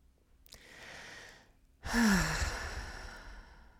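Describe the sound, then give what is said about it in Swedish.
A slow, deep breath drawn in through the nose, then a longer, louder sighing exhale through the mouth, clear with no talking. “Kanske bara ta ett sånt andetag, du som lyssnar också. In genom näsan, ut genom munnen.”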